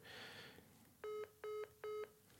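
A short burst of line hiss, then three identical steady telephone tones, evenly spaced and fairly loud, each lasting about a quarter second, on a call to a number in Linköping, before a Telia message says the number is not in use.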